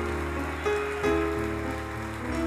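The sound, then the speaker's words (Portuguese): A crowd of people at a church service applauding steadily in praise of Jesus, a dense, continuous patter of many hands clapping, with sustained keyboard-like tones held underneath and no voices. “Se Jesus Cristo é o motivo da sua canção, aplauda Ele nessa noite, em nome de Jesus.”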